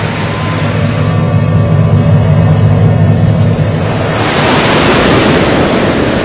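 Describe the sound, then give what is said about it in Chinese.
Surging ocean waves roar continuously at sea under dark clouds, huge waves rising from the deep sea and crashing onto a small boat; a deep rumbling swell gives way to a louder, brighter hissing rush of water partway through. No one speaks. “忽然，大海变了脸色，天上乌云密布，海面上波浪汹涌，一排排滔天巨浪从海的深处升起，恶狠狠地扑向小船，从他背后袭来，劈头盖顶地砸向了小船。”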